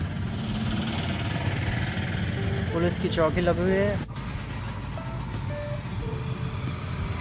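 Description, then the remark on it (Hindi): Steady road traffic on busy Jhalawar Road at Aerodrome Circle, with many vehicles moving ahead and behind, rumbles throughout, engines droning low, with a brief burst of chattering voices midway and short tonal beeps or horn-like notes near the end. A man speaks over the noise. “Jhalawar road पे काफ़ी भीड़ है मेरे आगे मेरे पीछे कई सारी गाड़ियाँ चल रही हैं”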